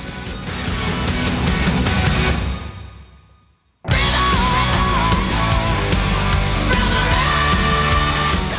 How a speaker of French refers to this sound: Il y a vraiment un gros, gros son de guitare. Hein. Putain, j'adore. Hein. Putain, puis euh, la batterie, ça joue grave.